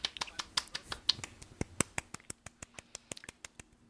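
Brisk hand clapping, a rapid series of sharp claps, uneven at first, then settling into a steady rhythm that gradually softens toward the end, with no voices.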